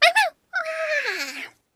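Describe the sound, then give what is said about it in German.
A voice imitating a dog, a professor's dog assistant, gives two quick, sharp yelping barks, then after a short pause a long, drawn-out whimper that slowly slides downward, clear with no other sound. “sein Assistent, bellte.”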